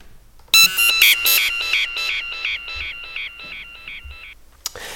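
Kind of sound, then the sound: signal or alarm, mobile phone ringtone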